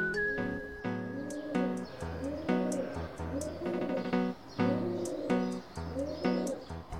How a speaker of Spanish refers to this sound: Ahora trata de imaginar el sonido y las preocupaciones vitales de una paloma.